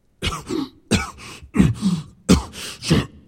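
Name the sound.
violent coughing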